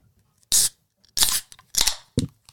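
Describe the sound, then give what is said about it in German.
Beer bottles are opened one after another with sharp hissing pops, three in quick succession, followed by a brief clink at the end. “So, aber jetzt zischen wir mal, oder?”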